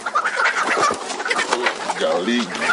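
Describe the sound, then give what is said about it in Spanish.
A flock of chickens behind a fence at the back of a brothel clucks and chatters as a man walks among them, a dense, continuous jumble of overlapping short calls with a few higher squawks poking through, fairly loud throughout. “Salta una cerca y camina entre las gallinas.”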